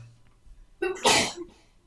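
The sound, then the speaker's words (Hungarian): A single loud sneeze with a sharp inhaled build-up followed by an explosive burst, then quiet. “Egész. Igen, egészségére.”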